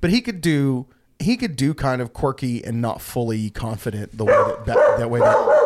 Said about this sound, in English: Wow. That's my dog, everybody.